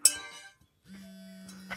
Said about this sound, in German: Jetzt habe ich hier noch so eine Aluminium-Trinkflasche.